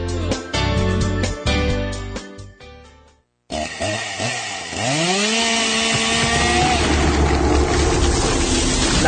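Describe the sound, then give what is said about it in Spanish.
A chainsaw felling trees revs in sharp bursts, cuts out briefly, then roars back with rising and falling engine whines before settling into a loud, steady buzz as it bites through wood; indiscriminate tree felling around Lake Apanás. “sala de árboles indiscriminada está dañando el agua Panás.”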